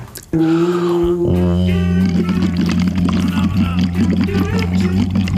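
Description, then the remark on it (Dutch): A person says a steady voiced "hoe" through a straw held gently in the lips into water, cheeks vibrating, turning into continuous bubbling like a small motorboat engine, fairly loud for several seconds. “Nou, ik hoor bij jou een beetje dat motorbootje geluid. Ik zie ook heel mooi dat je wangen trillen.”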